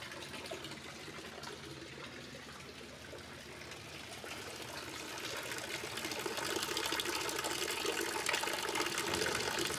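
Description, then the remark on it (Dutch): Steady running water from the fountain at the entrance of a building, a continuous splashing trickle that never stops and grows slightly louder and fuller midway through, with no voices. “Net als de fontein aan de ingang. Die stopt ook nooit.”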